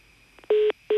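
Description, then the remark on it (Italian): A telephone line-busy tone after a dropped call during a phone interview with Enrico Vanzina: two loud, steady electronic beeps of the same pitch, each about a fifth of a second, separated by a short silence. “No, è caduta, caduta la linea.”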